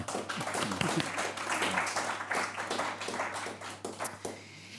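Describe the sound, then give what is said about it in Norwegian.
An audience at a transport policy debate applauds the panel steadily, many hands clapping in a dense, continuous patter at moderate loudness that carries on for several seconds before thinning slightly at the end. “Jeg syns vi kan gi dem en, en ekstra applaus.”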